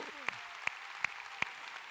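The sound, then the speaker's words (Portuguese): An audience claps in praise to the Lord in a steady rhythm, four sharp, evenly spaced claps standing out above a constant wash of scattered clapping filling the room. “Aplauda bem forte ao Senhor, aplauda, aplauda ao Senhor. Aplauda ao Senhor, aplauda ao Senhor”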